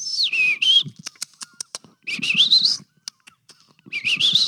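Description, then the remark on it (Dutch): Blyth's reed warbler singing slowly: three rising, wavering whistled phrases separated by gaps filled with sharp, dry clicks and short ticking notes, the phrases fairly loud against a quiet background. “Dan hoor je dat die met die toonladdertjes en klikjes tussendoor heel traag.”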